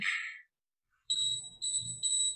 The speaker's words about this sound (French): Je vais te faire écouter le bruit du four.